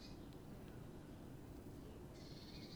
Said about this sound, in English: If I stop, I bet you can hear some birds.